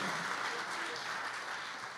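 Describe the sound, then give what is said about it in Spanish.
An audience applauds the Lord with steady, dense clapping that fills the whole moment, a broad crackling wash of many hands at an even loudness with no voices standing out. “Si usted lo entiende, déle el aplauso al Señor como Él se lo merece.”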